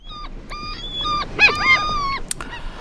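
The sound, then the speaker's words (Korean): A string of seagull calls from gulls flying freely in the sky, several harsh, nasal cries in quick succession with some overlapping near the middle, clear over a faint background hiss. “자유롭게 창공을 나르고 있는 갈매기 소리입니다.”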